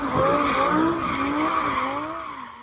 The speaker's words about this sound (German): wie Jakubetz mit quietschenden Reifen durch Moskaus Straßen fährt